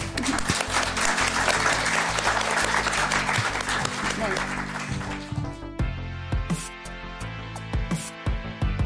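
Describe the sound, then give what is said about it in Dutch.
A burst of lively group applause for everyone at the table, dense and sustained, plays over a steady music bed for about five seconds, then fades away as the music carries on alone. “Ik wil een groot applaus voor iedereen hier aan tafel.”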